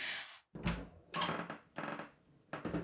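A door is opened with a few short wooden thumps and rattles, followed by brief scraping and handling noises; no one speaks.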